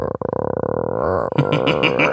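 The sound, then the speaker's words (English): A person imitates the low, demogorgon-like growl a dog makes when it sees a dog on screen: a steady, rumbling, throaty voice lasting about two seconds, turning rougher and more gravelly toward the end, with no words spoken. “she does like a demogorgon growl. It does not sound human in any way, shape, or form.”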